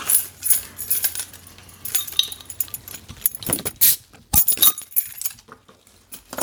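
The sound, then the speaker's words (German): Glass bottles of Sternburg beer clink and rattle while a bottle opener pries off caps, with a sharp metallic snap amid irregular clattering and handling noise, no voices. “Krieg ich mal einen Flaschenöffner?”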